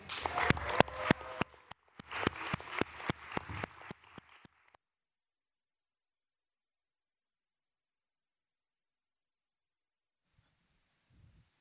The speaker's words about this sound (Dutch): Laten we alsjeblieft een heel groot applaus geven